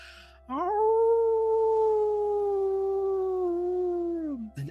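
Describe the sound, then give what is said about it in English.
A wolf off in the distance lets out a single long howl that rises quickly, holds a steady mournful pitch for several seconds, then slides downward and fades, with no other sounds around it. “as you do this, as you continue to howl, you hear amongst all the sound of the people celebrating, you hear the actual howl of a wolf off in the distance.”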